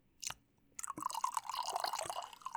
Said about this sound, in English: Oh, yes. Perfect pour. Listen to it gurgle.